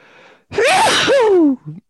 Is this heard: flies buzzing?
no